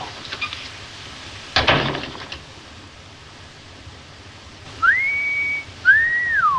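A man gives a clear two-part admiring whistle at a woman, a rising note held steady, then a second note that arches and falls, after a quiet stretch with a brief rustling thump earlier.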